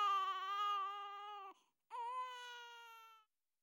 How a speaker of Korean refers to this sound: 그러곤 곧바로 구빈원 사람들에게 이 교구에 새로운 부담거리가 안겨졌다는 사실을 알리는 일에 나섰는 바 말소리라는 저 아주 유용한 부속물을 아직 소유하지 못한 사내아기한테서 기대할 수 있는 최대한의 합당한 울음소리를 3분하고도 15초가 훨씬 넘는 긴 시간 동안 한껏 질러댔다.